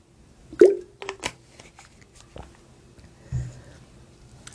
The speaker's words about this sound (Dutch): Ik neem even een slokje van mijn water hoor.